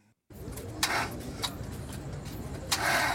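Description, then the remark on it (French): The engine of a car marked Village Noah cranks and sputters without catching, at night in Yaoundé, a steady rumbling drone broken by a few louder rasping bursts, fairly loud, with no voices. “C'est le bruit de la voiture qui vient nous chercher, où c'est marqué Village Noah.”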